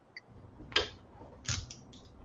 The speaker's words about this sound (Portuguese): Ah, te peguei mastigando hoje, hein? Estás comendo aí